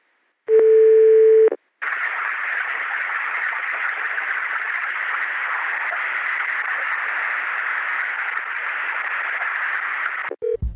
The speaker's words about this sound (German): Das Plätschern, das ihr gerade gehört habt, ist das Schmelzwasser des Gletschers. Wenn man da im Winter anruft, da klingt es jetzt nicht ganz so krass.